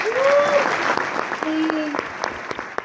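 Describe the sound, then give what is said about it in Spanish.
An event audience applauds itself steadily, dense clapping with a few voices calling out over it and a brief whistle-like tone near the start. “Bueno, un fuerte aplauso para todos ustedes.”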